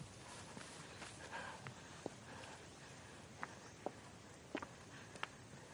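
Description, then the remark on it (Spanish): Slow, uneven footsteps cross a grassy pasture toward the rickety wooden door of an old rustic house, a handful of soft crunches and brushing sounds spaced irregularly over a steady, faint background hiss, with no voices. “Cruza un pastizal hasta la desvencijada puerta de madera de la vivienda.”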